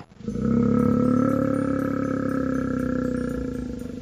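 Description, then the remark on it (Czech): A bear growls in one long, deep, rumbling roar lasting about four seconds, loud, starting suddenly and trailing off slightly, with no voices. “Kutálel se dál lesem, až se mu do cesty postavil medvěd a zabručil.”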